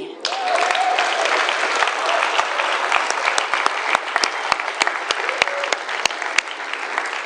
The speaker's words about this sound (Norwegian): Siste spørsmål. Hvor mange har akkurat flytta hjemmefra for første gang? Klapp for de.